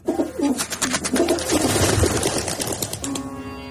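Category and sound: bird, pigeons cooing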